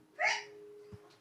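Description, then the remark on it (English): A single quick sneeze bursts out sharply and fades within a moment, followed by quiet background hum and a faint soft thump. “Bless you.”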